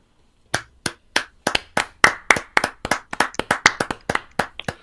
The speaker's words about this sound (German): Dann klatschen wir jetzt dafür, dass es die nicht mehr gibt, oder was? Nein, das war so ein trauriges Klatschen. Genau, also ein respektvoll, genau.